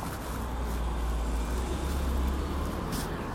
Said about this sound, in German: Straße, Sitz, fein. Bisschen warten, bis das Auto kommt.